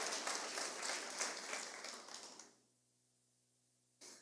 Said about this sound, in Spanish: Ahora, esa excelencia, eso es todo, hermano, eso es ahí, un aplauso a ellos, de verdad que sí a toda la banda.